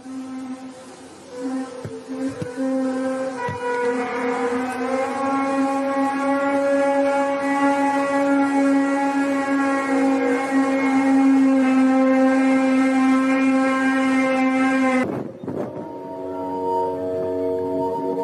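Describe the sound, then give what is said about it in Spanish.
A recording of the phenomenon known as The Hum: a steady, low droning hum with strong buzzing overtones holds for about fifteen seconds, then shifts abruptly to a slightly different, rougher drone. No voices are present. “Es sobre un fenómeno eh, muy interesante conocido como The Hum, eh, o en sus siglas, eh, en su traducción al español, el zumbido.”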